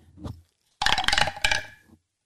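A short burst of hard clattering and clinking, like dice tumbling down through a dice tower, preceded by a brief soft knock and ending abruptly after about a second of rattling.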